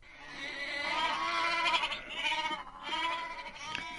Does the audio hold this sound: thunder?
no